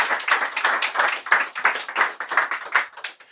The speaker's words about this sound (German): Applaus für dich.